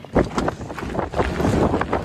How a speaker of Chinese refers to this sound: 民众拍摄影片中，一整面积雪加上呼啸风声，让人不敢踏出室外一步。